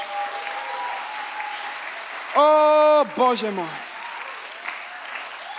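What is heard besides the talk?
audience clapping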